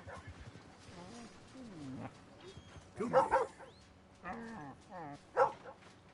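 A male dog barks at a grave, with two especially loud, sharp barks standing out, separated by whiny, drawn-out vocal sounds and shorter yelps in an irregular rhythm.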